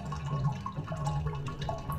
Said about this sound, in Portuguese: Aqui, nesse espaço, são as águas que têm vozes, elas geralmente passam pelas cavidades hidráulicas da estrutura, de fora para dentro e de dentro para fora.